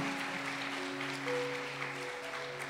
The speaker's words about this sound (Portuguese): Dê uma salva de palmas a Ele, que Ele está nesse lugar.